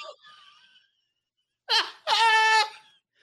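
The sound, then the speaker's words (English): A newborn baby wails angrily: a faint fussy sound first, then a short sharp cry followed by a longer, loud, strained wail that trails off. “Yo, that was an angry newborn.”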